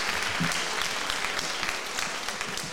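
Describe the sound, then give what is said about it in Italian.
A concert crowd claps steadily as a singer is invited onto the stage, a dense, continuous wash of many hands applauding, with no pauses and no voices standing out. “e vi chiedo un grande applauso per lei perché è fantastica.”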